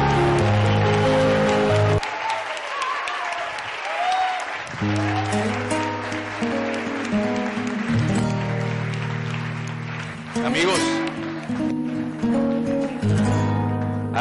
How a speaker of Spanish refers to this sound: Por favor, un fuerte aplauso a estos campeones que se lo merecen todo en la vida.